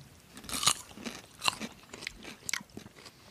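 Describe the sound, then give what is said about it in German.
Wet chewing and smacking, a series of crunchy bites and mouth clicks at an uneven pace as someone eats sausages of 180 grams each, with no talking. “Also, wie gesagt, wenn wir hier schmatzen heute.”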